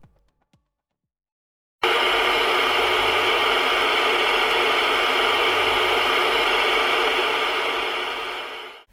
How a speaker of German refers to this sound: Sie hörten Weißes Rauschen, Rauschgenerator NG 04 nach Hans-Jochen Schulze und Georg Engel.